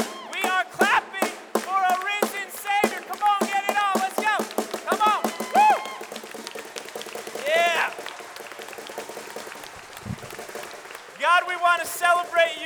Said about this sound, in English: He's going to give us a slow beat first, and then we're going to clap. Okay, this is this is forever. And it's going to get faster. Come on. And we are clapping for our risen Savior, right?